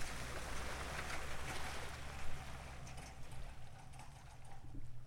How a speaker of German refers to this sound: Sobald das Boot Wasser unter dem Bug hat, löst Clemens die Winde und lässt es schwimmen.